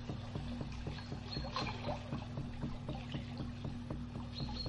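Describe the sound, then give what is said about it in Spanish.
Steady river water flows and trickles, a soft continuous wash with a low hum beneath and faint rhythmic ticking, no voices present. “Mete todo tu cuerpo y tu rostro y tu cabeza y purifícate, purifica, purifícate del cuerpo y del alma y de la mente y de los recuerdos y emociones y deja que el agua de la luna que vive en el río te purifique.”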